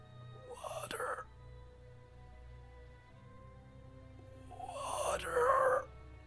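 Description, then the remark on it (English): A voice imitates an eerie, breathy whisper in two drawn-out bursts, the second louder and longer, over a faint low hum with no clear words; the whispering comes from a withered, dried-up plant next to a fallen watering can. “kind of whispering out from the one nearest to the can.”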